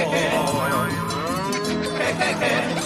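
A cow moos loudly, a long, drawn-out lowing call that fills the whole few seconds with no one talking.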